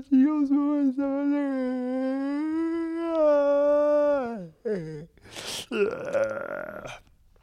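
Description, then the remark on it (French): A long, drawn-out vocal yawn: a sustained, slightly rising groan that sags and trails off, followed by a breathy exhale and a shorter voiced sigh. “Ah, ça fait du bien de bailler.”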